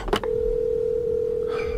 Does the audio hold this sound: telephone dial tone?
yes